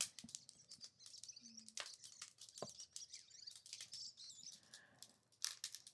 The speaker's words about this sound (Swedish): Jag vet inte om det hörs, men fåglarna är redan igång.